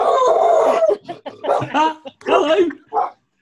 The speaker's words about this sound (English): We have a short moment while the dog says hello, which is lush. if anyone rings the doorbell, the dog goes nuts.